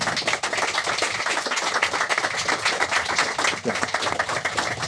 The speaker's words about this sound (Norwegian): Takk skal dere ha, alle sammen. God applaus for eh, debattanten.